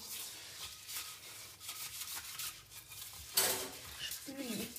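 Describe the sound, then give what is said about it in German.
Steady, gritty scraping of a utensil against a tiny frying pan as the pan is scraped clean, repeated strokes with a brief louder scrape near the end. “Ich rippe die Pfanne ab.”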